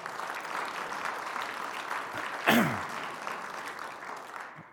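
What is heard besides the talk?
audience applause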